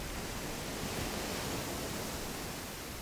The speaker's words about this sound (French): Tiens, un thème mer. La mer, euh, la mer, les vagues et tout ça.